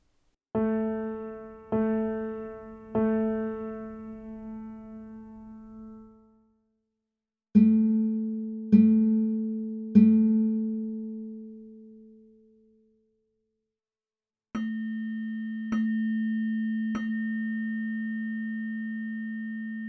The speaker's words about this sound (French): En fait, on commence à atteindre le chroma si on écoute la note jouée par les instruments différents. Je vous donne la possibilité de le faire. Écoutez.